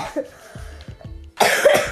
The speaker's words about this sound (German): Der hat ein bisschen Husten, ist ja nicht so ich schlimm.